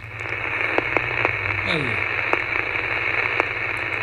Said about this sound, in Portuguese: Você ia lá sintonizando com o seu radinho, que nem o barulho que você tá escutando aí no fundo agora. Ô, produção, não, não, sobe rapidinho esse BG aí que tá maravilhoso. O sobe o rádio.